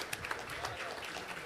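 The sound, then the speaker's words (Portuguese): An audience applauds the Lord in worship in a steady, dense patter of many hands clapping at once, fairly soft and even throughout, with a murmur of voices mixed into the clapping. “Glória a Jesus, aplauda o Senhor, exalte o nome bendito de Jesus.”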